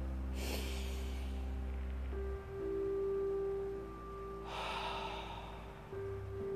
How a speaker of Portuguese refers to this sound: E enquanto você fixa o seu olhar, você vai trabalhar a sua respiração, puxando o ar pelo nariz, soltando pela boca. Assim.